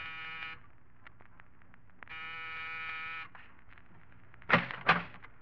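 An electric apartment door buzzer, pressed in the corridor of an apartment building in the East 70s of New York, sounds twice, a short harsh buzz and then a longer one, with faint clicking between. Two louder, abrupt bursts of noise follow at the end.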